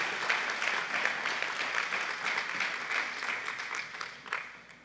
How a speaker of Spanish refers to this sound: Démosle una ofrenda de palmas al rey.